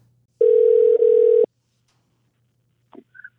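A single steady electronic ringing tone from an outgoing phone call, lasting about a second, then silence and a couple of faint brief clicks.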